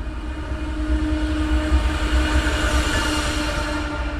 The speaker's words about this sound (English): Hey, here comes the train.